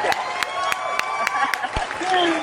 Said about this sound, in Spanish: Gloria la Trojera ha regresado. Un aplauso.